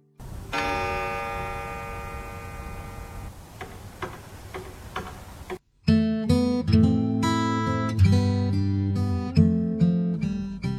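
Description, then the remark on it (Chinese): An old clock rings a sustained, resonant chime striking midnight, then ticks with a steady beat of sharp clicks, before a gentle guitar-led melody comes in and carries on to the end, from the Japanese TV series Midnight Diner (Shinya Shokudō). “每当古老的时钟敲响深夜十二点的时候，这间深夜食堂就开始营业。”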